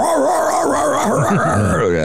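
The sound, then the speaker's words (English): A man's voice imitates excited drug-sniffing dogs searching a plane, a rapid run of yelping, whimpering yips and howl-like sounds, loud, continuous for about two seconds with no actual words. “Well, of course, I smoke pot on the plane, so the dogs are.”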